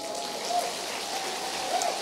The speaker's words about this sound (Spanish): Denle otro aplauso.